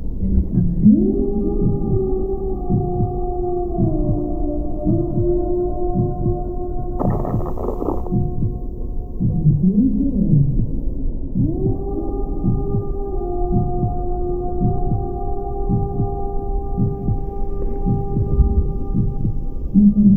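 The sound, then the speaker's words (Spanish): A steady, muffled heartbeat thumps in a regular rhythm, as heard from inside the womb, beneath sustained low humming tones that swell and fade. No one speaks. “¿Qué escuchamos en el vientre? el latido del corazón, la digestión, quizás la voz de nuestra madre.”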